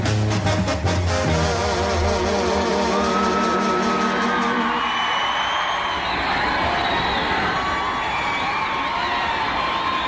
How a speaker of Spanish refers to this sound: Entre todos los gritos, los aplausos, gente cantando, llama uno la atención. Uno que grita Hoy te matan.